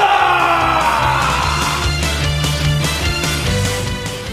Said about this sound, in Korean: 여러분들의 뜨거운 응원의 박수와 문자 5초간 발사!